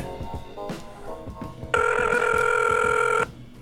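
An outgoing phone call placed from a phone rings: a loud, steady electronic ringback tone sounds for about a second and a half, preceded by softer tonal beeps and clicks of the line connecting.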